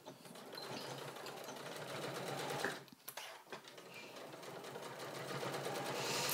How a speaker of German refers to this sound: eigentlich nähe ich jetzt ab hier immer mit der Nadel links